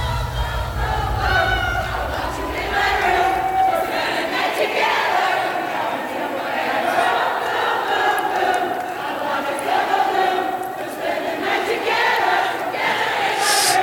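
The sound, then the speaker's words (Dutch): A huge stadium crowd sings along in loud, sustained unison to a song by a band, thousands of voices blending into a continuous roaring chorus, with a low rumble underneath during the first few seconds. “dat ik dan op zo'n podium zou staan en dat dan zo'n hele menigte mijn liedje meezong”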